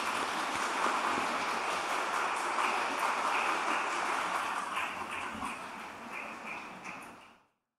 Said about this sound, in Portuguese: Vamos bater palmas para elas?